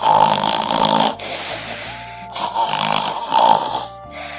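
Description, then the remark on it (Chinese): A dense chorus of many neighbours snoring at once at night, loud rumbling snores overlapping in a continuous, uneven wash with rasping peaks and brief dips, and no talking. “这时，所有的邻居也都打呼了，听起来简直就像爆炸声。”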